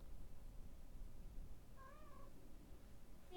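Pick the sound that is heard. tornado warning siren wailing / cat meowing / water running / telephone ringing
cat meowing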